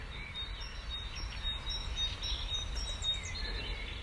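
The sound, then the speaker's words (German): Faint, high bird chirps and trills scattered through a steady outdoor hush in nature, with a low rumble underneath; the songs overlap, with no one speaking. “Ihr geht in die Natur, nehmt wahr, wie voll und leer gleichzeitig dieses Sein ist, das sich in diesen wunderbaren Vogelstimmen darstellt.”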